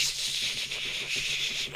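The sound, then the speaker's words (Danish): Rapid, continuous keyboard typing: a dense, steady clatter of quick key clicks with a bright, hissy edge, lasting just under two seconds with no voices. “De har tastet sådan her.”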